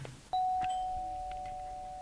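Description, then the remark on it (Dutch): A single electronic doorbell chime rings out clearly as a visitor arrives, holding one steady tone that slowly decays over about two seconds, with no one talking. “Kijk, daar gaat de bel.”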